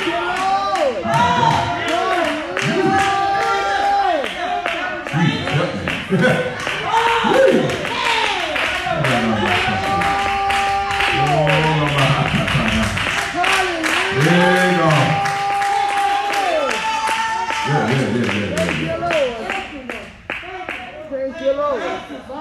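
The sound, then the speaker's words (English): A crowd claps steadily and rapidly throughout while many voices shout and call out over it, loud and continuous for the whole stretch before easing slightly at the end. “is what your clap is all about. This is what your shout is all about.”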